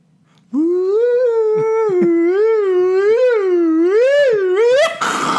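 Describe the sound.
A voice imitates a sci-fi time-travel effect said to sound like Doctor Who: one loud, continuous warbling hum that wobbles up and down for about four seconds, climbs in pitch, then cuts off in a short hissy burst.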